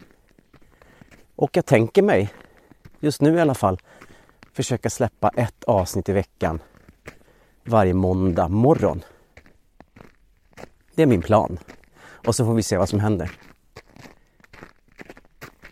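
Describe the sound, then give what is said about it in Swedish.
Steady footsteps crunch through snow on a cold forest walk at minus three degrees along a usual walking route, a soft rhythmic scrunching that sits beneath continuous speech and comes through more clearly in the brief pauses. “Och jag går i skogen.”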